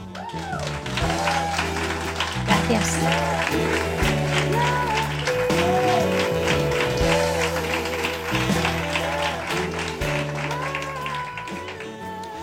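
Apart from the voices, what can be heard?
audience applause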